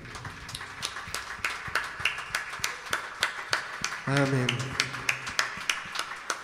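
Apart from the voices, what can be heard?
applause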